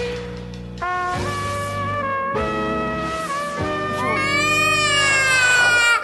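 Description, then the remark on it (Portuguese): A loud crying sound effect: a series of drawn-out, wavering wails follows one another with almost no pause, sustained for several seconds, with no talking. “Engole o choro.”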